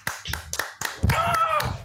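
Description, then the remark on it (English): A clapping sound effect: a burst of sharp, crisp hand claps, around eight in a quick steady rhythm, with a voice briefly sounding over the middle of the claps. “The mic wanted to clap.”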